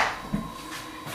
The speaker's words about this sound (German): Ja, wenn ich mal Ruhe haben will vor den Katzen, mache ich folgendes. Ne? Man kann ja mal die Tür zumachen. So.